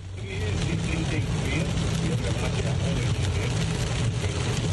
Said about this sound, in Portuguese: Tava ouvindo a Rádio Bandeirante, som no talo e a chuva ali também, ó. Chuva forte é? agora.